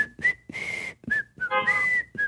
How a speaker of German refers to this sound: Wir, hatten ja kein, wir haben ja immer noch kein Intro, Intro gepfiffen.